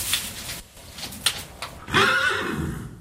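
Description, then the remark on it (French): A horse in its stall whinnies loudly, a long quavering neigh rising then trailing off, preceded by a few brief shuffling and snorting sounds. “C'est un cheval que vous connaissez pas Non, pas du tout.”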